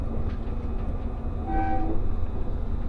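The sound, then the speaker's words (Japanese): The Resort Shirakami No. 4 sightseeing train runs on the Gonō Line in Japan between Fukaura and Iwadate, along the Sea of Japan, rumbling steadily along the rails, heavy low-end noise filling the scene, with a brief tonal whine or horn-like hum rising midway before the continuous rolling sound carries on. “耳で楽しむ鉄道旅 五能線 深浦→岩館 リゾートしらかみ4号”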